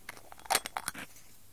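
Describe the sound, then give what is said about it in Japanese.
The cap of a bottle of Roku gin being twisted open, a quick run of sharp clicks and crackles as the seal breaks, fairly quiet, with no talking. “ちょっとやってみよう六人ってやつをね、今開けるよ。”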